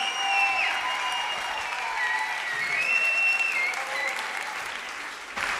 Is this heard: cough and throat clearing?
no